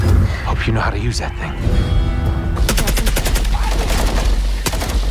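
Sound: video game gunfire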